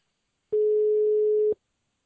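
A single steady telephone ringback tone, heard while calling a man back after the call was cut off, sounds for about one second, clear and fairly loud, with silence before and after and no voices.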